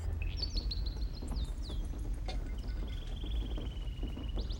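Birds chirp and trill in high, bright bursts, with a few quick rising calls and a longer warbling run, all over a steady low rumble of background noise.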